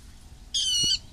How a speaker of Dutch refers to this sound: Nou, het is een beetje lastig te horen, maar ik hoor zowel een specht roepen als een, een waterrol. Die kunnen echt zo'n eh, zo'n heel luid eh, varkensgeluid maken. Alsof er een big geknepen wordt